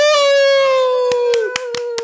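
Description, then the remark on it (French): Five sharp, evenly spaced hand claps greet an invited guest in the second half, over a steady, held, high-pitched voice-like tone that runs throughout. The claps come from one or two people, not a crowd. “La foule est en délire.”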